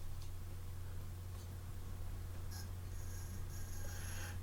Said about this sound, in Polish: No dotykasz ale wiatraka. palcem chyba. dotykam wiatraka od procesora. Y, robię te, to, czego robić nie wolno, czyli pracuję przy otwartym komputerze